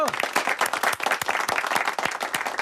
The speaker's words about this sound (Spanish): Vamos a brindarle un aplauso mientras llega. ¡Bravo!